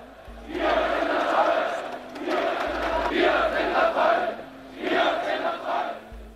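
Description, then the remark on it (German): A large crowd of about 70,000 demonstrators marching through Leipzig on 9 October, demanding more democracy, chants the slogan 'Wir sind das Volk' in unison, three loud rhythmic bursts of many voices with brief pauses between. “Etwa 70.000 Menschen zogen durch die Stadt und forderten mehr Demokratie. Immer wieder war der Ruf zu hören, wir sind das Volk.”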